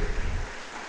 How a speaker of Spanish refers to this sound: Dele palmas a Dios fuertemente, hermano.